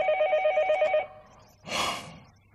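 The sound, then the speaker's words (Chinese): A telephone rings with a rapid, trilling electronic tone that pulses steadily for about a second, then stops; a short breathy burst of noise follows. No one speaks. “过两天之后，他又给我打一电话，”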